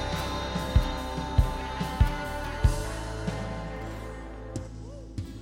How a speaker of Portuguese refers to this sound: Esse é o som. O carpinteiro bater na porta.